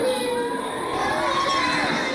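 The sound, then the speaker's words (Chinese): A dense crowd of kindergarten children on their first day of school, wailing and crying at once, with loud overlapping high-pitched sobs and shouts forming a constant chaotic din throughout. “给你们听听幼儿园开学第一天的哭声。”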